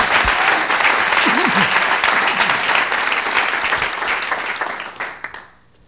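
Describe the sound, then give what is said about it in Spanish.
A church audience breaks into loud, sustained applause for the Lord one morning, a dense wash of many hands clapping with faint voices underneath, holding steady for about five seconds before quickly fading out. “Démosle un buen aplauso al Señor esta mañana.”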